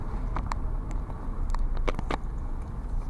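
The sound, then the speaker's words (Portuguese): Steady low road rumble from inside a moving vehicle in traffic, driving behind a bus, a constant engine-and-tyre drone with a few brief clicks and ticks scattered over it, no one speaking. “tenho um autocarro à frente, aqui nada estou mais para estar contra o autocarro.”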